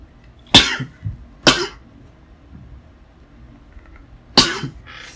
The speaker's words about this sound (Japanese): まあ、くしゃみはしましたけど、カットはしないはずです。